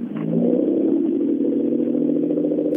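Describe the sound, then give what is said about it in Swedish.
An Opel Ascona car engine runs steadily, a low, even idle hum with faint mechanical clatter and no talking. “Nu ska vi lyssna hur han låter.”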